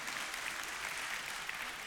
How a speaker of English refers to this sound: yeah, we clap for that. We need that. I need that.